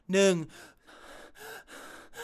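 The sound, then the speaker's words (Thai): A man imitates heavy panting, a sharp voiced gasp followed by several rapid, breathy exhalations in a steady rhythm, fairly loud, like someone during cardio exercise who is too out of breath to count past one or two. “แต่ถ้าเกิดผมได้นับได้แค่ 1 แล้วอีสองสามเนี่ยหอบแล้วเนี่ย แสดงว่าคาร์ดิโอกำลังได้ที่ และหัวใจเต้นกำลังได้ที่แล้วก็แบบว่า 1”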